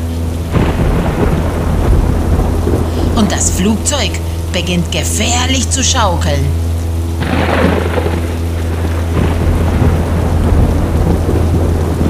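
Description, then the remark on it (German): A thunderstorm encountered by an airplane in flight, with continuous rumbling thunder and heavy rain hiss, sustained and loud throughout, over a low steady drone, while a voice speaks briefly partway through. “Plötzlich geraten wir in ein Gewitter.”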